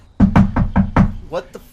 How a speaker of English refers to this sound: And um, he comes over and bangs on your door